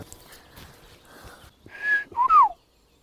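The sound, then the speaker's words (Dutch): After a moment of quiet outdoor background, two short, loud, fluty whistled phrases ring out, the second sliding downward, like a blackbird's song. “ja die merel, zo klinkt hij een beetje, die toon.”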